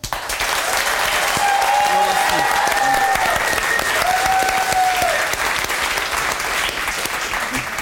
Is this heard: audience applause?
yes